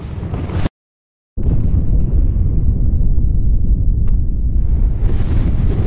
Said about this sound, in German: Zur gleichen Zeit detoniert über dem Stadtzentrum die Bombe in einer Höhe von 570 Metern.